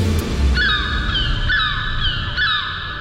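Seagulls call out three times in a row, loud, drawn-out nasal cries that slide downward, over a steady low rumble like wind or surf.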